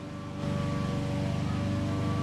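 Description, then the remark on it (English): A steady, droning engine hum with a buzzing mechanical tone from government lawnmowers running outdoors, swelling a little louder after the first moment and then holding constant. “It's really hard to concentrate with these lawnmowers right now, dude.”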